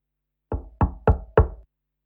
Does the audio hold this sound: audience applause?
no